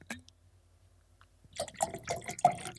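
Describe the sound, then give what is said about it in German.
Water is poured into a glass, a short gurgling splash that swells after a brief quiet start and keeps trickling unevenly to the end. “Ich brauche Wasser. Ich höre das.”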